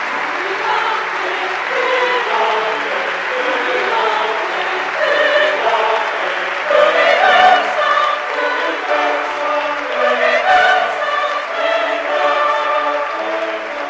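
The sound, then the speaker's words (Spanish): Sustained applause from a large standing audience in Pamplona Cathedral as the new bishop, Monseñor Florencio Roselló Avellanas, takes his seat in the cathedra; a dense steady wash of clapping that swells slightly midway, with a faint murmur of voices mixed in. “recibido con un aplauso de todos los asistentes que siguen en pie en este momento mientras el nuevo obispo se ha sentado en la cátedra, en la que ahora ya es su cátedra de esta catedral de Pamplona.”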